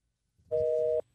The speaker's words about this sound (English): Son of a gun, it's busy. Oh, darn That's a fall sound. Busy, busy fall. A busy phone signal is a fall sound. That's weird.